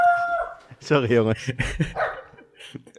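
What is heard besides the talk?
dog barking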